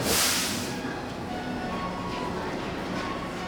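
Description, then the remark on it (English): A subway train's steady rumble, with a sharp burst of air hiss at the start and faint whining tones through the rest, as if pulling into a station. Murmured voices may sit underneath. “We all get off the train together”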